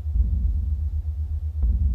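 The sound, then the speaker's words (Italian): A deep shamanic drum throbs low and steady, its booming resonance blending into a continuous rumble, with one sharper, stronger beat landing near the end. No voices. “e ai tamburi sciamaggi.”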